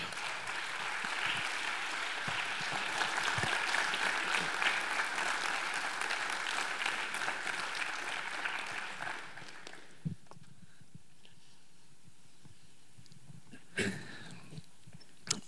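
A crowd applauds to welcome guests on stage for a conversation, steady dense clapping for about ten seconds that fades out, followed by quiet with a couple of sharp knocks or handling sounds.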